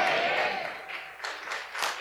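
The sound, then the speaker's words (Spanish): An audience applauds with a dense, steady wash of clapping that holds fairly even for two seconds, with a faint voice or tone at the start. “No ha terminado, no ha terminado para que aplauda.”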